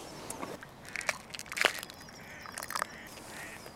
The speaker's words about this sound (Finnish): sorsat, sorsat ja kaislikko siinä edessä meri.